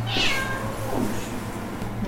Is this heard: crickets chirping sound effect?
no